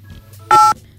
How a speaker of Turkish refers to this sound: Tuş sesi galiba. Telefon tuş sesi.